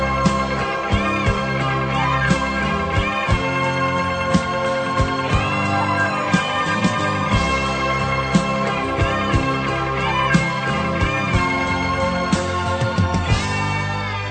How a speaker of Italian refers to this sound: Mandiamo una canzone anche noi. E noi mandiamo una canzone che peraltro è anche in tema, eh, l'abbiamo mandata già l'altra volta, è il secondo inno della rivoluzione.